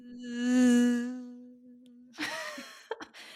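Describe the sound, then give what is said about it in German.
A voice imitates a mosquito's high, droning whine heard around 3 a.m. in the middle of the night, a steady nasal buzz swelling and fading over about two seconds, followed by a burst of laughter. “das Tier, das ich am schlimmsten finde auf diesem Planeten, sind Moskitos.”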